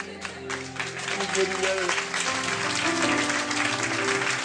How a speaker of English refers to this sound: I didn't say that for you to applaud, but uh, I love you guys.